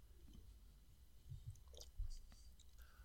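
Someone takes a quiet sip of lager, with soft slurping and mouth sounds, a couple of gentle low thuds, and faint clicks.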